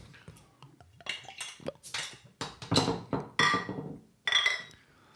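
Beer glasses clink together in a toast, several bright ringing knocks in a loose, uneven sequence, a couple of them sharp and loud with a short shimmering ring, amid soft rustling and faint voices.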